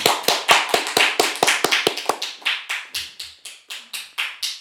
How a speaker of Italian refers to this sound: Ci basta un applauso, dai. Benissimo.